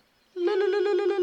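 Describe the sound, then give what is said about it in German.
An electric doorbell that keeps ringing while its button is held down rings continuously after a moment of quiet, a loud, steady rattling buzz with a rapid pulsing texture that holds without pause until the end. “die Klingeln, die weiter klingeln, wenn du deinen Finger drauf gedrückt”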